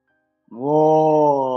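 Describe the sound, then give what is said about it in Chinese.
A single long, low growling roar, voiced by a person imitating a big evil dragon roaring from the clouds. It starts abruptly after a brief silence and holds loud and steady for about a second without any talk. “云中忽然传来一声咆哮，吓得女巫的心扑通扑通扑通扑通扑通。”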